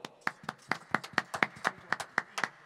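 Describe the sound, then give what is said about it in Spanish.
Steady, rhythmic hand clapping, about a dozen sharp claps in quick even succession, moderately loud, with no voices over it. “Otro aplauso para el por favor.”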